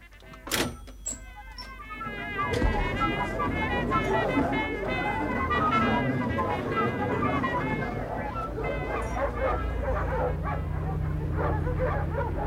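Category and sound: animal, dogs barking and whimpering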